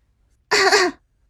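One deliberate cough, a short, loud, voiced burst of about half a second with a throaty, throat-clearing quality, sounding alone against quiet before and after.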